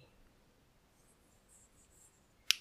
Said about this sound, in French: Prends ton pinceau et commence par mettre un peu de jaune sur ta feuille. Donc je mouille ma peinture et je prends du jaune que j'étale sur une partie de la feuille.